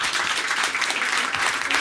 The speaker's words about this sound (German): Genau, einmal klatschen, wer uns nicht kennt und wir euch nicht, also wer uns nur vom Podcast kennt.